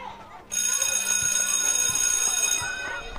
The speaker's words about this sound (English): No! Poppy sobbed as the recess bell rang and everyone rushes to get in line.